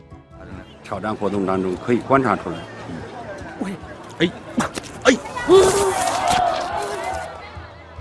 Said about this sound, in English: But as with our fated friend Karl Wallenda, the wind proved to be the undoing for the Chinese acrobat the crowd and commentators gasped as he lost his balance again and plunged from the wire, out of sight of the TV cameras.